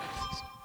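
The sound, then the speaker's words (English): A phone notification ding sounds faintly, a brief electronic chime with a steady ringing tone and a brighter accent partway through, heard alone with no one talking. “Oh, that's my phone.”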